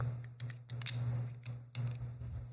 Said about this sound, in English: This is um D and D ASMR. I'm um I'm gonna be rolling some dice.